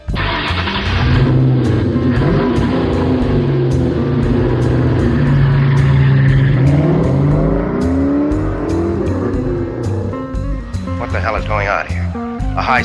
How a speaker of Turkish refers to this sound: high-speed pursuit.